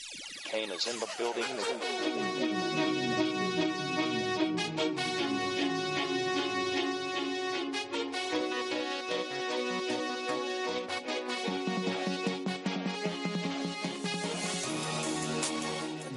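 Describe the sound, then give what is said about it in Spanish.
A Valladolid radio station's basketball section theme jingle plays on its own, loud and upbeat, with dense layered instruments and a steady driving pulse that carries through the full sixteen seconds without any talking. “misma banda sonora en Radio Marca Valladolid para el baloncesto y para el Ciudad de Valladolid”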